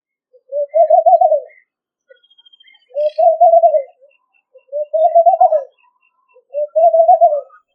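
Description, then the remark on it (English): A laughing dove coos in four bubbly, rising-and-falling phrases spaced evenly about two seconds apart, clear, with no other sounds or voices around it. “Hey, do you hear that peculiar cooing, which sounds like our laughter in loop? Is that the laughing dove?”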